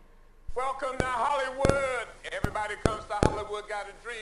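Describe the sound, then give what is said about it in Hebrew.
A recording of a single brain neuron firing, made by Rafi and his team: about six sharp, irregular clicks, each an action potential, spaced around half a second apart, standing out over a steady background of voices or tonal sound. “ואנחנו נשמע כל פיק כזה שתשמעו כל רעש הוא בעצם פוטנציאל פעולה, ירי של תא בודד במוח שבעצם רפי והצוות שלו הקליט.”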